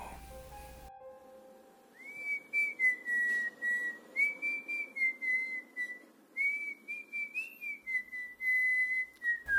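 human body sound, human whistling

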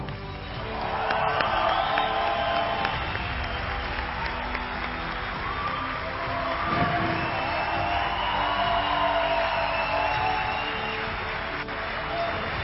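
crowd, audience applause and cheering

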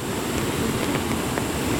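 nature, rushing flooded river water

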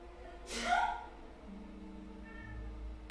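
animal, cat meowing

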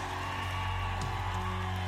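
crowd, audience shouting in response

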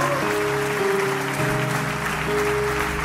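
crowd, audience applauding

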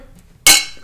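household object, glasses clinking

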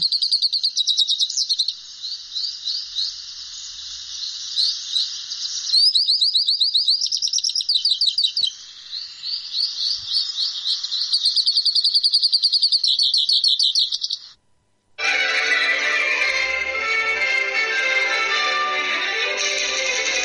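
bird, hooded siskin song

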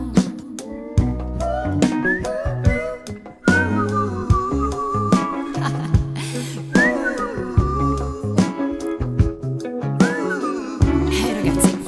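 human body sound, person whistling a tune

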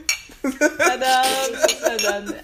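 household object, glasses clinking

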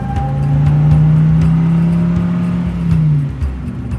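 vehicle, car driving off

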